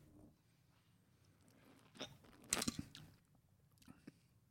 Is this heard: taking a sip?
yes